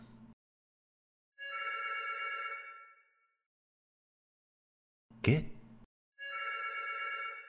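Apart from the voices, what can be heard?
telephone ringing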